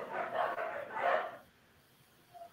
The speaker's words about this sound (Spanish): en este caso donde, ay, perros, cállense.